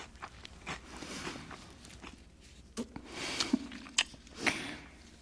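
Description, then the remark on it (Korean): Crunchy chewing of golden, crispy fried sweet and sour pork covered in a clear sauce, soft munching at first, then several sharp, loud crunches in the second half, with no talking. “나가 보니 예쁜 작은 그릇에 노릇노릇 바삭하게 튀겨진 탕수육이 맑은 소스를 덮고 있네요.”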